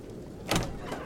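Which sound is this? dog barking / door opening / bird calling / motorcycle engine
door opening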